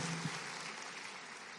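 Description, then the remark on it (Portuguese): A crowd applauds for Jesus, clapping together in a steady, dense wash of applause, many hands at once at an even level, with no voices standing out. “Se for para Jesus, aplaude aí de verdade mesmo.”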